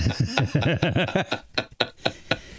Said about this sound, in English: Uh, if, that's why if you hear some tapping, I'm just tapping Morse code about something.